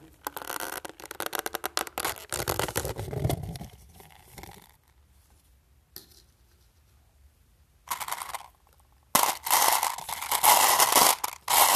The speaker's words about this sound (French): Donc, sont dans un pot. Ça, c'est le bruit du pot. Quand on ouvre le pot.